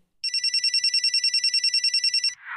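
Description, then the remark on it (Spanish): A telephone rings as a stepbrother calls a mother, a fast, steady electronic trill, bright and high-pitched, pulsing evenly for about two seconds before cutting off into a brief rustling noise. “El hermanastro llamó a la madre de Ali.”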